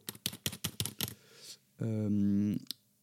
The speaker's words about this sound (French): j'ai tapé comme ça hein, sur mon clavier. Attendez, je, vous fais, je vous fais aussi du, bruit en même temps.